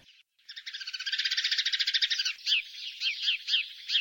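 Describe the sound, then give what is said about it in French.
Nestling birds chirp nonstop in a dense, rapid rattling chorus of high-pitched peeps, fairly loud, then break into separate repeated begging calls; no one speaks. “Et avec ça, les gosses qui arrêtent pas de pioyer.”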